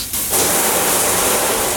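A shower switches on and sprays water in a steady, loud hiss, a broad rushing noise that swells within the first moment and then holds evenly, with no voices.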